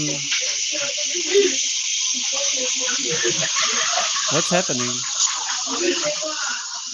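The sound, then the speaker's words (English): A loud, steady hiss of steam from an espresso machine runs unbroken for the whole stretch, while people talk over the noise. “No, there's some kind of as if there's some smoke or something. Well, what anyway? it's then, espresso machine.”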